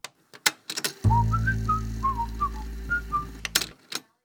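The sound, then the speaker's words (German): A short placeholder tone, standing in for music not produced in-house, plays alone for about three seconds: a steady low hum under a few bright, whistle-like melodic notes, framed by sharp clicks and taps just before and after. “Deswegen hört ihr immer, wenn fremde Musikinhalte kommen würden, diesen Ton.”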